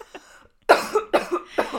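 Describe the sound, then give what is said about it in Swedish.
Someone coughs in a rapid burst of four harsh, raspy hacks, preceded by a faint short catch of breath, choking on an inhaled oat cookie crumb caught in the throat. “Ja, nu satte hon också en liksom kaksmula i oh, halsen här.”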